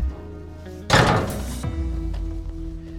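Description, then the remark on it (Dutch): A door slams shut with a single loud, heavy thud that rings out briefly, then settles into a steady low background hum with no voices, at a practice village on a training ground in the Lauwersmeer area of North Netherlands. “Ik eh, gooi de deur dicht en dan eh, loop ik met je mee.”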